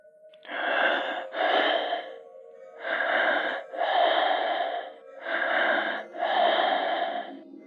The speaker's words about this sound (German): In der Leitung ist zunächst nichts zu hören. Dann setzt ein schweres Atmen ein.